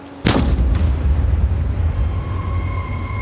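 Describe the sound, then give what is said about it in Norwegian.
A single loud shotgun blast cracks out sharply near the start, followed by a deep rumbling echo that lingers and slowly fades over the next few seconds. The shot hits a newspaper delivery man on his round in eastern Oslo on a September day. “Og så kjenner han et voldsomt stikk og det viste seg at avisbudet var blitt truffet av et hagleskudd.”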